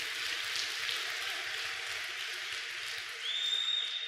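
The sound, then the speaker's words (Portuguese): An audience applauds steadily, many hands clapping together in a dense, continuous wash of sound that holds fairly even throughout, with a faint high tone appearing near the end. “Uma salva de palmas.”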